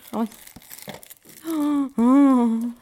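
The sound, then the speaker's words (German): Crackly crinkling of the wrapper of a chocolate from an Ikea Advent calendar, brown below and white on top, being opened in a few quick bursts, followed by a drawn-out voiced sound from a person. “es ist ein, eine Schokolade mit äh, unten braun, oben weiß.”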